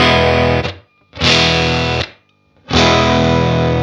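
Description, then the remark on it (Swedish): Overdriven guitar through a Deluxe amp emulation, three loud, gritty chord bursts separated by brief silences, each sustained about a second with a buzzing, saturated tone; no voices. “nu har vi ett relativt överstyrt deluxe men alla de här har ju olika kabinetter också.”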